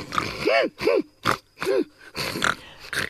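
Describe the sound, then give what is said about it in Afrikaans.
A pig grunts and snorts, about six short nasal bursts in quick, uneven succession with brief pauses between them. “Die laaste ding wat verander het, was die vark se snoet.”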